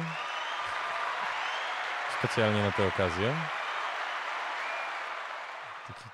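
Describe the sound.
A steady wash of audience applause runs through the whole stretch, dense and even, with a short spoken phrase cutting in over it partway through before the clapping carries on and tapers slightly.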